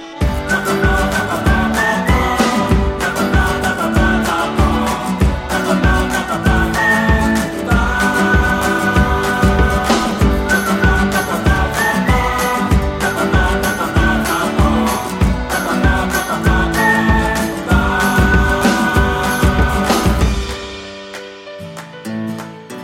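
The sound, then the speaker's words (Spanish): A steady, upbeat guitar theme tune introduces a weekly Wednesday legend segment. It plays alone for about twenty seconds, with strummed chords and a repeating bright melodic line over a driving rhythm, then fades out briefly at the end. “Hola, muy buenos días, es miércoles, ya escuchas la sintonía, ya escuchas esa guitarra que nos trae la leyenda de cada miércoles.”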